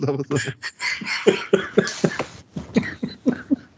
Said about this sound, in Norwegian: Litt nærmere mikrofonen. Nei, vi hører deg ikke. Du må snakke det du må gurgle litt høyere.